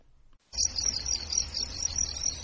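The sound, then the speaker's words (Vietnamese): A dense chorus of crickets in cement breeding tanks in a farmer's backyard in Nakhon Ratchasima province, northeastern Thailand, chirps continuously after a brief silence, a shrill, steady high-pitched trilling of many insects, with a low rumble of background noise underneath. “Ở tỉnh Nakhon Ratchasima, những bể cạn bằng xi măng chứa đầy dế là cảnh thường thấy trong sân sau nhà của nhiều nông dân.”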